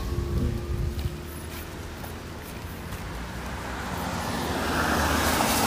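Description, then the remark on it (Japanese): Steady roadside traffic noise with cars passing, a broad whooshing rumble that swells louder toward the end as a vehicle approaches; no talking. Recorded while walking along the road. “ちょっと今歩きながらで車の音とかも多分めちゃくちゃ入ってると思うんですけど”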